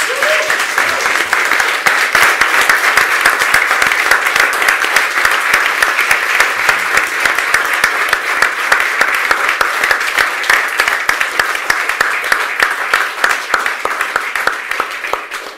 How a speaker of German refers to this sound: Ja, ihr hört einen riesen Applaus.